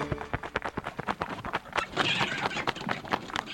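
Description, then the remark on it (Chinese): A busy flurry of wings flapping from a swarm of letters with small bat wings beating at a classroom window, with quick, uneven papery beats overlapping in a steady rhythm that keeps going throughout, moderately loud, with no voices. “外面突然传来了一阵翅膀拍打的声音，哎！”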